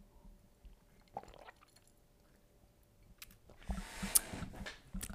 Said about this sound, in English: hold on i'm gonna sip some apple cider if you have some hot cocoa or apple cider or gatorade whatever have a sip